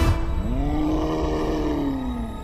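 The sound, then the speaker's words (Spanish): A titan roars in pain after being stabbed with a sword at the hip, one long, loud, drawn-out bellow with a rising then slowly falling pitch, deep and rumbling, filling the whole moment with no speech. “El titán gritó de dolor.”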